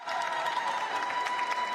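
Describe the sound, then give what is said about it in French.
A crowd in the Saint-Thomas church in Mosul, Iraq, cheers joyfully during a celebration, a dense, steady wash of clapping and excited voices sustained throughout at an even, fairly loud level, with no single speaker standing out. “En ce jour, les cris de joie retentissent.”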